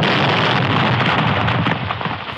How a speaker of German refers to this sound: Hast Explosionen schon?